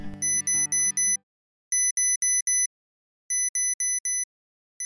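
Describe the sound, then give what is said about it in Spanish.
An alarm clock rings in repeated bursts of four quick, bright electronic beeps with short pauses between groups, loud, with no one speaking. “Suena y suena la alarma y lo único que hacemos es posponerla cada vez 10 minutos más.”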